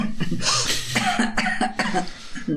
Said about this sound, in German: Seht ihr mal, jetzt bringt ihr sie sogar schon zum Husten mit euren Fragen.